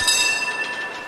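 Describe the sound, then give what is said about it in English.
An authentic San Francisco trolley car rolls along its rails, a steady rumbling clatter topped by a thin, sustained metallic whine from the wheels. It is brief and fairly loud, with no voices. “Hey, come get on an authentic trolley car and have a homeless person poop on you.”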